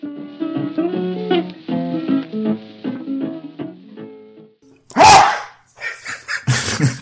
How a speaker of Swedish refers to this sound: En hund eller var det du som nös där? Nej, det var jag som nös. ah. Jag tänkte jäklar, de har skaffat, de har skaffat eh, Doberman eller något. Jag är ökänd för mina enorma nysningar. ja, prosit.